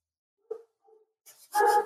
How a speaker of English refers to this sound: Dog is barking. Again.